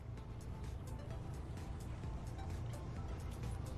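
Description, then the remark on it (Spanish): Steady engine rumble from inside a moving bus carrying the Toluca football team to the city of Puebla, Mexico, a dense low drone with constant road noise and no pauses, continuing evenly throughout. “espero que no se me corte que vamos aquí en el, autobús, pero a sus órdenes.”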